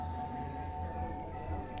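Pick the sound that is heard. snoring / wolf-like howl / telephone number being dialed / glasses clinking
wolf-like howl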